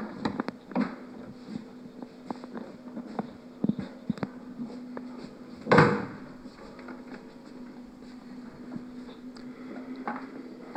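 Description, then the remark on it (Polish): A door that someone had left open shuts with one fairly loud thud about halfway through, surrounded by scattered light clicks and knocks over a steady low hum, with no one talking. “Cholera, drzwi ktoś nie zamknął.”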